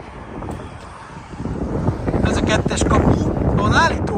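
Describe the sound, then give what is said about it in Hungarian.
Cars drive past beside the speaker on a road in front of the South Fork Ranch, a broad whooshing rumble that swells louder after the first couple of seconds, with wind buffeting the microphone and a voice speaking briefly over it. “És itt húznak el az, a, a, az autók mellettem.”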